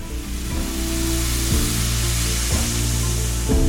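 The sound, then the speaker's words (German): A shaken bottle of sparkling water has its cap unscrewed, the dissolved gas escaping suddenly in a steady, loud fizzing hiss that continues without a break over a low, droning hum, with no voices. “Was dann passiert, könnt ihr beobachten, wenn ihr eine Sprudelflasche schüttelt und den Verschluss aufdreht.”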